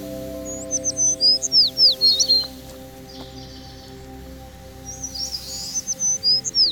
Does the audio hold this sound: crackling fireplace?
no